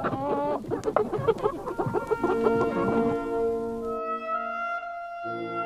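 A rooster clucks in a quick, busy run of sharp calls, then the sound stretches into longer drawn-out tones; no one speaks.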